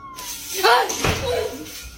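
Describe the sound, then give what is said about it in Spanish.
A door swings open with a drawn-out, wavering creak, then a sharp thud of wood near the middle, followed by a softer creaking tail, against a low background hum. “Se abrió la puerta.”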